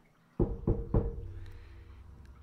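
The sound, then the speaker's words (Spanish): Three quick, evenly spaced knocks on a bedroom window at around 3 a.m., fairly loud, each leaving a faint resonant ring that fades into a quiet background. No one speaks. “ya les mencioné que en esta casa estaba todo bardeado con vidrios y un patio gigantesco y pues es un pueblo pequeño, o sea, si alguien entrara a las casas en las noches a tocar las ventanas, sería algo de lo que hablaría la gente del pueblo.”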